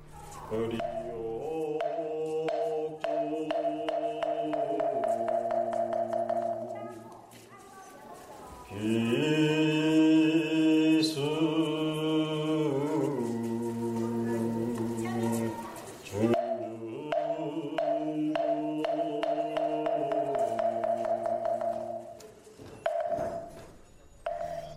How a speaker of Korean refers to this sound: 이거 예불하는 소리만 들으면 여기가 남쪽인지 북쪽인지 사실 잘 모르겠거든요. 뭐 알 알 도리가 없죠. 저도 어뭐 이게 참 이게 이 연불의 내용을 뭐 정확히 알진 못하지만 뭐 네. 어, 반야심경 이 정도는 아는데 거의 뭐 아니 다를 이유가 없, 없지요. 네. 네. 여기는 어딘가요? 아 저기 묘향산의 보현사입니다.